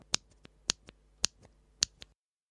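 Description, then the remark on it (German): A mechanical keyboard switch with a 45-gram steel spring pressed four times at a steady, unhurried pace, each sharp clack followed by a softer release click, alone with no talking. “Und der Sound ist eigentlich ganz nett und fast schon ein bisschen focky. Ich kann mal probieren, ob ihr das hier vielleicht hört.”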